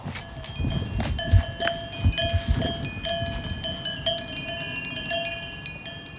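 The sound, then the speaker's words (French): Several cowbells on cows in a field clank and jangle irregularly, overlapping metallic tones ringing out as the cows shift around, with a low rustling background and no talking. “Bonjour les vaches.”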